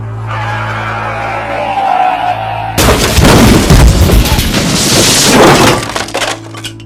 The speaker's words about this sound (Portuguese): Lá de dentro, nós só escutamos o som alto de freios e uma forte batida.